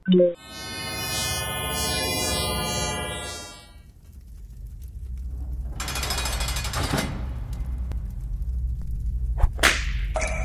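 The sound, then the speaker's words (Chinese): A whip cracks sharply at the start and again near the end, separated by a sustained electronic-sounding tone and a rushing, noisy swish; no one speaks. “哎，你手里怎么拿着一根鞭子啊？”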